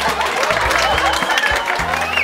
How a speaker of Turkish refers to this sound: Lütfen ellerimizi bahçe için bir araya getirelim. Çok kırılgandır utanıp kaçmadan onu cesaretlendirmek için sadece birkaç saniyemiz var. Hadi alkış diyorum hadi.